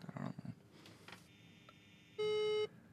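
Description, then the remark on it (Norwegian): A single steady electronic beep from an incoming call on the same telephone mid-conversation, loud and clear for about half a second, sounds over a quiet phone-line background with faint rustling and murmuring noises before it. “At vi ble oppringt eh, på samme telefon midt i eh, samtalen.”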